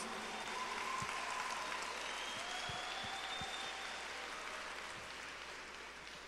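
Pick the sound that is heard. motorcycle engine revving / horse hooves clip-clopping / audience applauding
audience applauding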